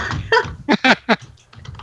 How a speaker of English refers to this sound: I was typing and I know they can't hear me.